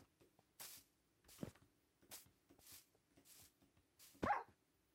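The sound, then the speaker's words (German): Faint dog sounds, soft whimpers and yips, come between a string of short rustling bursts as the dogs run along behind, ending with one louder, sharper bark. Nobody speaks. “Okay, die Hunde laufen hinterher.”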